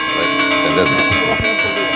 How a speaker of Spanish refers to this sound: eh, repique de campanas en eh, un pueblo de Zamora Repique de campanas que se produce en muchos sitios de manera automática con ordenadores y con un megáfono.